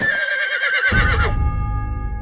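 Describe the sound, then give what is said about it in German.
A horse whinnies loudly, a single shrill, quavering call lasting about a second before breaking into lower snorting tones as it trails off. “Der junge Ritter stößt den Mönch zu Boden und nimmt seine Pferde mit.”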